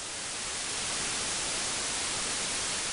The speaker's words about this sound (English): When it comes to sustained consistent noise, there's a few types. White noise is like static on a TV when your antenna is busted.